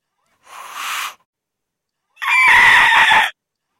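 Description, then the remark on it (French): A voice imitates a raptor's screech for the grey wolf in a telling of the galette tale, in two bursts: a short rasping cry, a pause, then a longer, louder harsh screech with a strained, shrill edge. No other talk is heard. “Ah bah là, on dirait plutôt un raptor, hein.”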